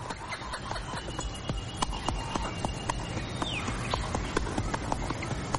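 A white horse ridden by a man gallops away, its hooves pounding in a rapid, irregular clatter of sharp thuds that runs steadily through the whole stretch over a rough background noise, with no voices.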